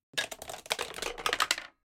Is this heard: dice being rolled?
yes